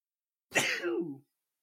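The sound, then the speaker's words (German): A single sneeze bursts out suddenly with a sharp, hissy onset, then trails into a short voiced tail. It is fairly loud, lasts under a second, and silence surrounds it. “Ah, da musste ich kurz, ich musste kurz niesen.”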